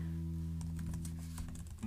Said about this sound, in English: I always like comment like the nicest things on someone's post and they like delete it. And I'm like, okay, wait. I have to say this again. You can hear my typing ASMR. How about that?